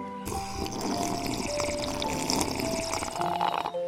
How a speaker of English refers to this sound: We begin today's meditation with a few sipping exercises to remind us a little treat can go a long way. So pick up your McCafe iced coffees, close your eyes, and deep sip in